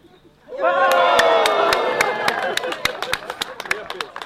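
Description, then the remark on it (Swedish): A crowd breaks into loud, sustained cheering and shouting, with scattered hand claps popping through that grow into steady applause as the cheers slowly fade. “Ja, jag tycker att det var ganska typ ändå ambitiös äh, äh, publik där.”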